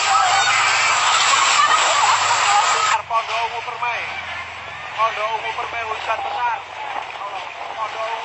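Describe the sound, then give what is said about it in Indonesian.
Strong tornado winds roar loudly through the Pondok Ungu Sektor 5 housing area in Babelan, Bekasi Regency, West Java, on a Friday evening, with light rain. A dense, rushing noise lasts about three seconds, then a person talks steadily while gusty wind noise continues underneath. “Inilah detik-detik angin puting beliung yang melanda kawasan perumahan Pondok Ungu Sektor 5, Babelan Kabupaten Bekasi, Jawa Barat, Jumat petang.”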